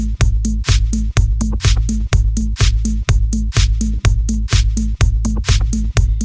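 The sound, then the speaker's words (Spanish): A loud electronic club track played on the radio show Oasis Club Radio, with a pounding four-on-the-floor kick, deep sustained bass and crisp hi-hats on the off-beats, driving steadily at a fast dance tempo with no voices. “Quería dejarlo por aquí porque a mí me marcó muchísimo esta canción en los tiempos de”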